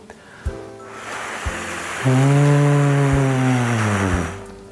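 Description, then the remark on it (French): A person imitates the wind in a forest with a breathy, hissing whoosh, then adds a long, steady, low vocal hoot like an owl over the top, fairly loud, before fading out. “Notez que je démarre toujours par le bruit du vent et je rajoute le hibou après.”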